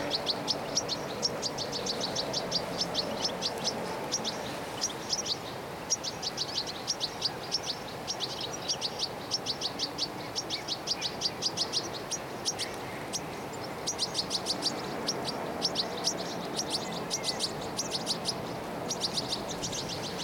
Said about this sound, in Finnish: Yritän kävellä vähän lähemmäksi vielä. Josko tuo tikliparvi antaisi luvan mulle tulla vähän lähemmäksi.